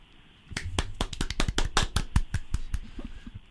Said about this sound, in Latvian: Tie bija mūsu aplausi studijā.